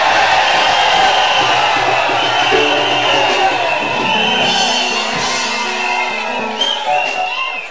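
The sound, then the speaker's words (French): An audience shouts together in church, crying out in the presence of God: a loud, continuous roar of many overlapping voices with raised cries. It holds its intensity throughout and eases only slightly at the very end. “Donc on crie quand on vient dans la présence de Dieu.”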